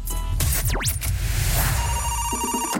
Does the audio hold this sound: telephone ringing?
yes